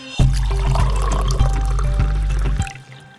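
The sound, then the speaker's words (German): Coffee pours steadily into a cup for about two and a half seconds, fairly loud, with the tone rising slightly as it fills before the stream cuts off. No one speaks. “Das klingt so spannend, das verlangt eben einen genaueren Blick zu eurem ersten Kaffee des Tages.”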